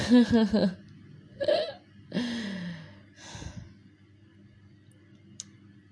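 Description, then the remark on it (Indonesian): Several loud breaths blown right into the microphone, four noisy bursts over a few seconds, some with a slight voiced edge like gasps or sighs, then quiet. “gue napas mulu ya Astagfirullahaladzim maaf maaf ya Allah maaf ya”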